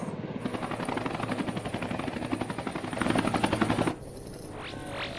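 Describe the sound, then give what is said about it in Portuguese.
A helicopter's rotor in a video game chops in a fast, steady, loud thumping pulse, swelling slightly before cutting out abruptly near the end, followed by a few faint whooshing sweeps. “No helicóptero.”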